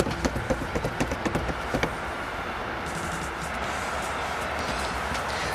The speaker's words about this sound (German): Wie viele Züge sind das denn? Zwei oder drei? So, ähm, das macht keinen Sinn, dass wir hier warten, bis der Zug vorbeifährt.